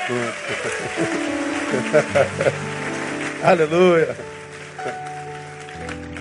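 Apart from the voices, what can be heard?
audience applause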